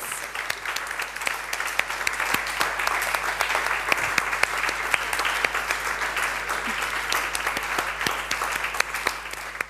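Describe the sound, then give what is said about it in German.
A crowd claps steadily to thank two assistants, a dense wash of many hands with sharp individual claps popping out, sustained at an even level for the whole stretch with no voices standing out. “Kommt doch einmal nach vorne, einen riesen Applaus.”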